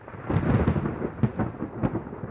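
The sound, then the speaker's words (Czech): A low, rolling thunder rumble from an approaching storm fills the short stretch, with sharper crackling bursts rising and falling irregularly over a steady rain-like hiss. No voices. “Další zahřmění.”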